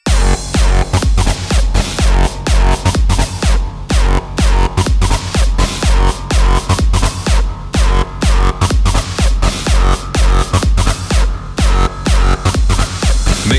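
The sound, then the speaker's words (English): A loud, dense electronic music drop pounds along with heavy, evenly spaced bass hits and blaring stadium-style horn stabs, packed with distorted noise from start to finish. “some noise with stadium horns.”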